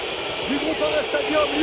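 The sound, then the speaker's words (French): A large stadium crowd in Lyon boos loudly in a continuous, dense roar as Lyon lose 3-1 at home to Dijon in Ligue 1, with scattered whistles rising and falling through the din. “La bronca”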